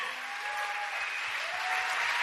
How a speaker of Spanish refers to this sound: Dale un fuerte aplauso al rey. Sí, vamos, dáselo fuerte, dáselo fuerte. a él.